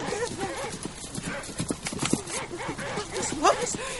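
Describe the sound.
Horses' hooves clop in quick, uneven beats throughout as several riders arrive on horseback, while voices talk over them and a brief high whinny-like cry rises near the end.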